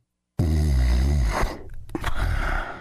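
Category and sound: human body sound, man snoring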